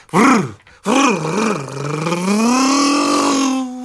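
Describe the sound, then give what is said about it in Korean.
A voice on a radio show mimics a grass cutter running as a sound effect, sputtering in two quick bursts before settling into a steady, rising drone that holds for a few seconds, loud. “예초기 작동 소리까지 각종 효과음 소리 내느라 연휴에도 고생이 많으시더라고요.”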